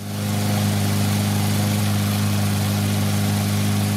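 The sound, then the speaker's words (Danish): A lawnmower engine runs steadily, a loud, continuous droning hum with a strong low buzz that holds constant throughout, with no voices. “Det var så den velkendte lyd af en plæneklipper.”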